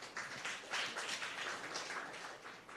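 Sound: audience clapping hands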